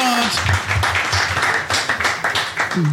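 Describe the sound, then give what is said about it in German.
An audience applauds guests leaving a stage, a dense wash of many hands clapping at once, loud and sustained throughout, with cheers or whoops rising briefly over the clatter. “Das ist euer Applaus.”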